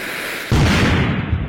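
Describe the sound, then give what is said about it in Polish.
A single loud explosion bursts in abruptly after a brief low rumble, followed by a heavy, sustained roar of rumbling debris that dulls slightly as it continues. No one speaks. “No, jakby czekałem na ten wybuch.”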